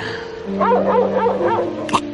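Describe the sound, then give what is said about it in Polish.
A large dog, let loose on private property, approaches while growling and barking in a run of four rough, rising-and-falling bursts over a steady low droning background, ending with a sharp snap-like sound. “Ale, ale, teraz spuścili psa. Zbliża się, ale bydle.”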